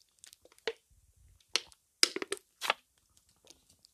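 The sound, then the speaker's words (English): Someone takes a drink of water: a handful of sharp, crackly bursts like a bottle being gripped and handled, with a soft low rumble in between and no talking. “I'm going to get a drink of water real quick.”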